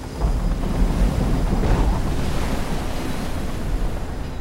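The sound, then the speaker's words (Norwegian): Steady roar of ocean waves with gusting wind buffeting the microphone, a continuous, loud wash of surf and rushing air on the Barents Sea, with no voices. “Den svinger opp og ned og høyre og venstre i bølgene.”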